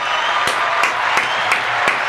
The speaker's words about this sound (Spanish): lo recibimos con aplausos en la firma radio